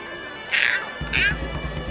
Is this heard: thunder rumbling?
no